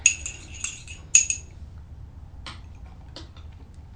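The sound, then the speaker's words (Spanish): Someone takes their second sip of a drink of the day: a few light, ringing clinks of a cup or glass being handled, then two soft clicks, over a low steady background hum with no talking. “Bueno, me voy a dar el segundo sorbito del día.”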